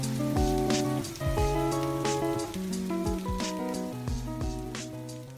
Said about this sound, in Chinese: 是轻快的雨点，背景是日本流行音乐。